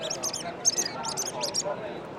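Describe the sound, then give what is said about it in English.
Soft, high-pitched squeaky peeps from a fox call mimicking a mouse, used for calling foxes, come in quick little clusters of two or three, fairly quiet over a faint background hiss. “few little peeps. And we've called foxes. It's a really quiet call.”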